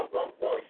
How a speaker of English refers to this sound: And I'm sorry if you hear Vinny barking.